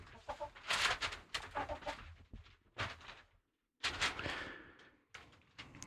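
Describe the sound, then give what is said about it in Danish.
A hen held up to the microphone to be interviewed clucks close to it, a run of short, bright bursts in an uneven rhythm with a brief pause midway, fairly loud and with no talking over it. “Nå, så må vi jo interviewe øh, høden. Kan vi få den op til, øh, til mikrofonen?”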